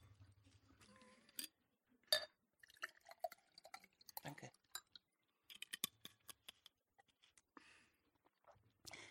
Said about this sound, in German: Dafür brauche ich vorher noch einen kleinen Schluck dieses köstlichen Wassers.